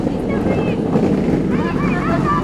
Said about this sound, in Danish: Øh, og nu kører lige en kæmpe larm på vinden.